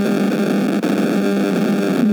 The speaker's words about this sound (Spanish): escuchas un ruido como de interferencia?